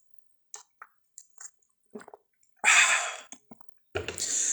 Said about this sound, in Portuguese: Deixa eu só beber uma água aqui, por favor.